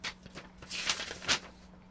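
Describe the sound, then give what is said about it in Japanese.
Crisp paper rustling and crinkling, with a few sharp swishes and rustles as a listener's letter, folded in half, is drawn out and opened up in a prize draw. No one speaks. “では、今からお便りをですね、こう半分に折りまして、私がピッと引いていきます。”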